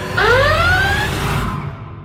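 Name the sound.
alarm siren sound effect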